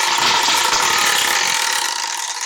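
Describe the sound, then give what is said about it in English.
A new spinning wheel contraption, spun by hand, rattles rapidly against a pawl, a dense, loud stream of clicks that gradually slows and thins as the wheel loses speed. “gonna spin it and then I'm gonna hold it up I got a new contraption here so I got.”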